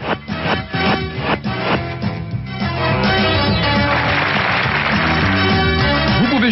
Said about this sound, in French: Tous les jeux sont possibles sur Internet, roulette, dés ou blackjack par exemple, avec bruit et applaudissements.